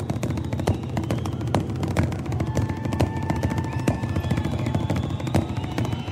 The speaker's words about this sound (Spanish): Mira, acá tenemos una con su baterista tocando en una silla y de ahí pasan a la batería. En una silla, escuchen. Están tocando una silla, los dos.